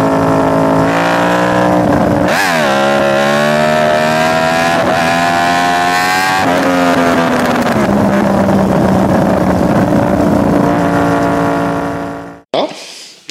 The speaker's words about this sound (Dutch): En godverdomme, ja, een R1. Ja. Crossplane, juist. Ja. We zullen hem laten horen in de podcast.